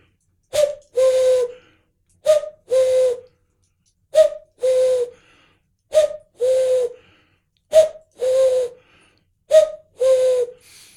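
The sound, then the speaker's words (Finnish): A cuckoo call played on a bird-call instrument, six clear two-note 'cuck-oo' phrases repeated in a steady rhythm, fairly loud with short silences between, no talking. “Sitten käki,”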